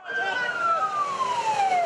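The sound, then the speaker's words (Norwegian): An ambulance siren wails with a long, steady tone that slowly drops in pitch as the vehicle passes, loud over a busy background; ambulances shuttling through the night between Atatürk Airport and the hospital after an attack. “Ambulansene kjørte i skytteltrafikk mellom flyplassen og sykehuset gjennom natten, mens pårørende hastet til for å finne sine.”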